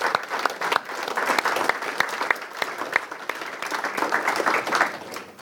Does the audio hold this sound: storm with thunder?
no